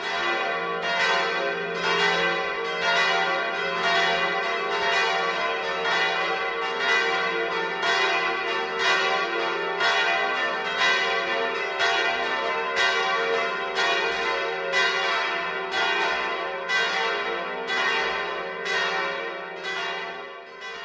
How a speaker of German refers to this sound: Es ist 12 Uhr. Das Mittagsläuten kommt heute aus Kirchenpingarten in Oberfranken.